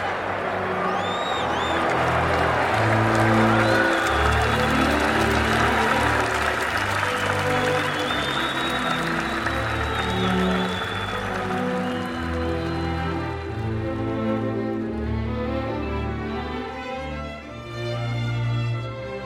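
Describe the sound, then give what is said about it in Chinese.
A large crowd of more than seven thousand people bursts into sustained, loud applause mixed with cheering and a few high-pitched whoops, the dense clapping holding steady throughout before easing slightly near the end. “这时，群众掀起一阵热烈的鼓掌声和欢呼声。”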